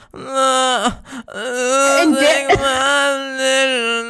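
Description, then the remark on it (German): A single voice, loud, mimics a song's guitar riff with wordless wailing notes, one short phrase, a quick break, then a long sustained, wavering line. “Und äh, ich weiß, dass viele Leute das mögen, aber wenn ich noch ein einziges verficktes Mal diese scheiß Gitarre hören muss, wie diese I'm here to call,”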